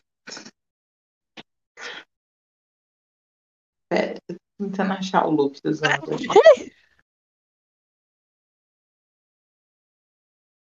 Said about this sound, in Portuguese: Saúde. Eu demorei pra entender que era um espirro. Gente, é, eu também, eu achei que ele tava rindo.